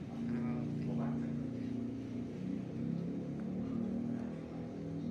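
An engine runs steadily, a continuous low droning hum with slight wavering in pitch and no clear revving, holding at an even loudness throughout.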